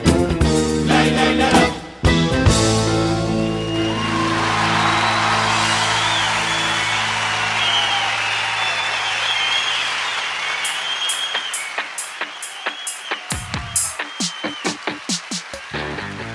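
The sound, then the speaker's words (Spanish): A rock-and-roll anthem with bandoneon, heard in the Río de la Plata region whenever Uruguay's football team plays, plays loudly, then a roaring crowd swells over the music, ending with steady rhythmic clapping in time; no one speaks. “escuchábamos entonces cuando juega Uruguay, que es una especie de himno que se escucha mucho aquí en Río de la Plata, como les decía, cada vez que hay un mundial o cada vez que Uruguay gana una Copa América”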